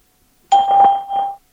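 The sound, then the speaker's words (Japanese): A clear electronic two-note beep prompt from the Skype voice test service, signalling to start speaking a message of up to 10 seconds, rings out once for about a second, loud with no voices around it. “ピーポーンの後にメッセージを10秒間でお話しください。”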